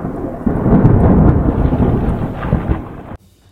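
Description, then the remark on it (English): A loud, deep rumble of thunder rolls continuously for about three seconds amid a stormy wash of heavy rain and strong wind on a stormy night with lightning, then cuts off abruptly into near silence. No one speaks. “On Saturday night, it was a stormy night with thousand and lightning.”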